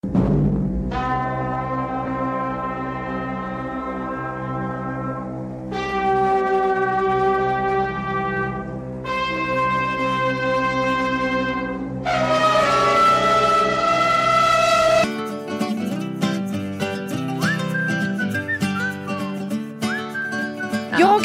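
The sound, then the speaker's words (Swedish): A brassy fanfare plays on its own: loud, sustained chords in several bold blasts, each held for a few seconds, shifting to a busier, rhythmic passage near the end. “Men vi har, vi, nu, nu ska vi ha en fanfar som, slutar som handlar om, eh, det, det är ett hopp om en resa till öken.”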